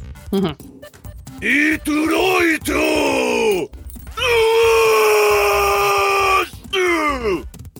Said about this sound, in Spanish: No lo grité, lo proyecté. Es muy diferente proyectar a gritar.